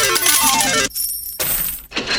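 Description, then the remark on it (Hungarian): A loud, bright cascade of coins clattering and jingling like a Las Vegas slot machine jackpot payout, coming in dense bursts separated by a brief lull, with no voices. “Ez, ez Vegas, mikor megnyered.”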